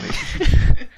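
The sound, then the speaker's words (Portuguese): A single loud sneeze bursts out abruptly, a short explosive blast of breathy noise that cuts off into quiet, with no talking around it. “Saúde.”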